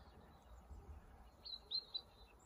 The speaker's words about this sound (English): For today's short meditation, I managed to find a little spot with some pleasant sunshine and I'm gonna sit, listen to the bird song, fresh air, slow my breathing,